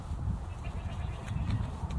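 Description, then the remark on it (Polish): A goat bleats in drawn-out, wavering calls over a steady low rumble, loud for the whole couple of seconds, with no one speaking. “Koza?”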